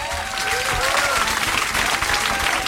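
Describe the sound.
Steady, loud applause from an audience fills the whole moment, a dense wash of many hands clapping with a faint murmur of voices underneath.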